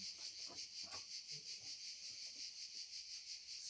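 Dense, continuous buzzing of cicadas fills the air, a steady pulsing drone with no pauses, fairly loud, with faint incidental low sounds beneath.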